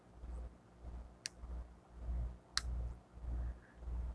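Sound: fidget cube clicking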